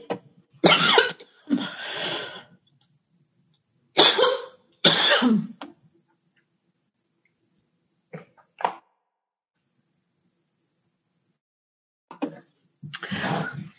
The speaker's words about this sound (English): I am so sorry. Oh, I was having a little coughing fit there and had to take a minute.